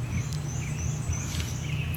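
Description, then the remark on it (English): Faint, high bird calls and thin whistles of wild birds repeat outdoors in the morning, set against a steady low rumble of background noise. No one speaks. “I'm out birding this morning”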